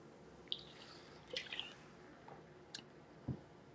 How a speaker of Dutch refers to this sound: Lekker een slokje water drinken.